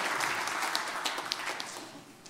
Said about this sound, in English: Give the Lord a great hand clap of praise tonight. And you can be seated.